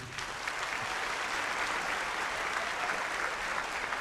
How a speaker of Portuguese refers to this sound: É, vamos dar uma salva de palmas para esse grupo.